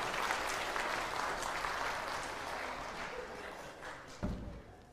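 A crowd claps steadily for several seconds, a dense wash of applause that tapers slightly toward the end, with a single louder thump near the close.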